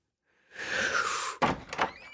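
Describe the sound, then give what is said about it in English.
A door slides open to answer a caller, with a drawn-out scraping rumble, then a couple of sharp knocks and thuds as it settles, fairly loud with no voices. “Just answer the freaking door.”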